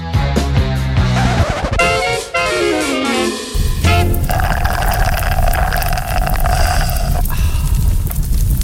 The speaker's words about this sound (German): mit den letzten Schlürfen vom äh. Frappe geht es da gerade äh, ins Knistern rein.